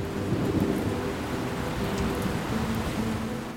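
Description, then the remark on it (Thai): Steady, continuous rain, the first in three years, pours down onto desert sand for three days and nights, with a dense hiss and a deep low rumble underneath, like a storm. It stays even and fairly loud throughout, with no voices. “วันเวลาผ่านไปจนกระทั่งฝนแรกในรอบสามปีได้ตกลงมาน้ำฝนซึมแทรกหายลงไปในพื้นทรายอย่างรวดเร็ว ฝนตกต่อเนื่องกันถึง 3 วัน 3 คืน”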